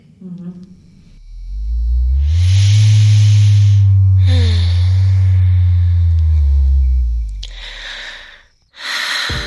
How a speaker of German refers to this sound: Was ihr da gerade gehört habt, war Siri 2 ein kraftvoller Auflegevibrator, der auf Sound reagiert, ähm, aus dem Hause Lelo